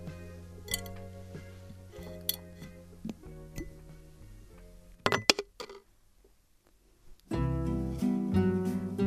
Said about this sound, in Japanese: ではこのコースターもガラス瓶に入れて保存したいと思います